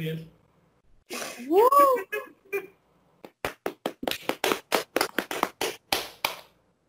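A brief rising vocal whoop, then applause: a steady run of about a dozen sharp, evenly spaced claps, fairly loud and separate rather than a dense crowd roar.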